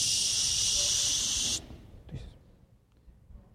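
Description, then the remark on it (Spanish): A voice imitates a rattlesnake's rattle with a loud, steady hissing buzz lasting about a second and a half, then it cuts off abruptly, followed by quiet background and a faint breathy sound. “Yo durante mucho tiempo estuve en los Scouts y cuando salía me tocó en varias ocasiones, mientras iba caminando por alguna vereda, escuchar el cascabel.”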